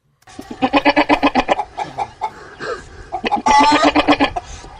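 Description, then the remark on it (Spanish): A man's voice imitates a goat bleating: loud, quavering calls with rapid trembling pulses, running for several seconds with brief breathy pauses between bursts. “Eso es el tipo, el tipo haciendo de... De, de, gallareta suena. Sí. ¿Qué es eso? De, de, de chiva.”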